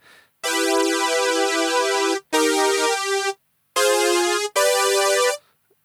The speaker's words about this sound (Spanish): bueno, es una especie de, híbrido entre un, eh, un bass muy sintético y uno un poco menos no sé, bastante natural, pero sigue siendo, sigue siendo sintético. Y en el slot A tengo em, en base al sonido que se llama P5 Saga Synth.